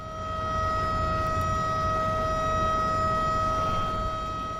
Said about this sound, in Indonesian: Bunyi sirene pada pukul 1 lewat 55 menit siang hari memberitahukan dimulainya pengangkatan jembatan.